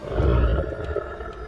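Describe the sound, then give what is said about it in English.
A deep, rumbling creature roar with growling texture, loud and sustained across the whole moment, echoing in a vast nesting cavern of molten rock. “Unsettling roars and growls echoed, and shadows danced in the ruddy glow of the oozing rock.”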